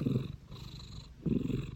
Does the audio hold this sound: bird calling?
no